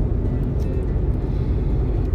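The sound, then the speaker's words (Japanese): A steady low rumble inside a car while driving, a muffled, constant and even hum with no voices present. “えー、今日は車の中からお届けいたします”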